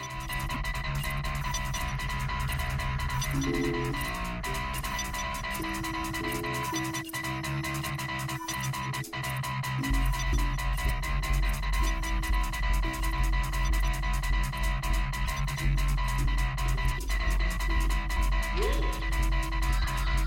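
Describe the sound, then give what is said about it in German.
Randomly generated electronic music from the Addicted to Random project organised for Radio Korax plays steadily throughout, with dense sustained tones, rapid ticking high notes, and a heavy bass drone that swells in partway through; no one speaks. “Ja, liebe Hörerin, ihr habt es gehört. Es geht um Zufallsmusik.”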